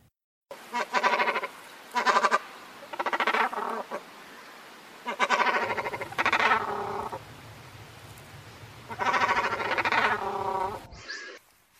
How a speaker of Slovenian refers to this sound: pač kormoran, pa vranjek, ste ptiče, ki jih bolj vidimo, pač slišimo jih pa niti ne toliko.